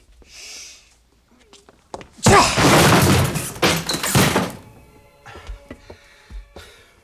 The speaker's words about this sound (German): Wenn er das Eintreten der Tür nicht gehört hat, ist er stocktaub.